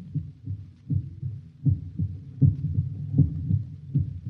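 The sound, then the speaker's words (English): A human heartbeat pulses steadily, each beat a deep, muffled double thump repeating at a regular rhythm, prominent with nothing else around it. “It is the pulsating of the human heart.”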